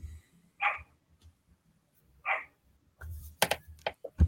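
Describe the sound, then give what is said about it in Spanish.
A dog barks twice, a couple of seconds apart, followed by a cluster of sharp clicks and thumps. No one speaks. “Callen ese perro”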